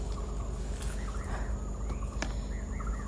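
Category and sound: bird, many birds calling outdoors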